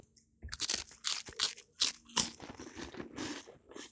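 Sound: crunchy food being chewed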